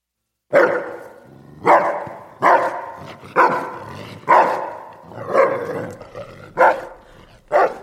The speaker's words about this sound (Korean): 엄마 심부름을 가는데 어디서 시커먼 개가 튀어나와서는 으르렁거리는 거야.